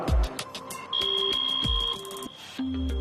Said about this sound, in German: Genau, damit ich, damit ich weiß, was halt da drinnen ist und damit es für mich persönlich nicht gefährlich wird. Wenn zum Beispiel Sauerstoffmangel entsteht, ähm, schlägt das Gerät Alarm.